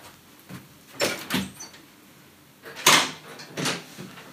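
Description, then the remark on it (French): A door being unlocked and opened for a person who was locked out because the key had been left in the door: a few sharp clicks and rattling knocks spaced over several seconds, with a louder clatter near the end and no voices. “Le pauvre, il, il arrivait pas à rentrer. J'avais laissé la clé dans la porte.”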